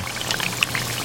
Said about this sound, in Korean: 조금 잔인할 수 있지만 얘들 좀 튀깁니다, 오늘. 예. 오늘 얘들 좀 튀길게요.